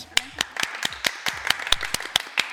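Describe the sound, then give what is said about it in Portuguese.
Audience applause at the Igreja dos Vales church: a quick, uneven patter of sharp, crisp hand claps from a small group, steady in loudness, with faint voices murmuring underneath. “Aí, uma salva de palmas.”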